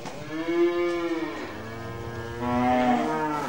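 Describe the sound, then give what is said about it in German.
Two long, drawn-out cow moos sound in succession, the second a bit louder, with faint background rustle, in the stable at Antonius in Fulda-Heimbach, Germany, where the Christmas Mass is celebrated. No one speaks. “Der Gottesdienst wird auch in diesem Jahr im Stall gefeiert”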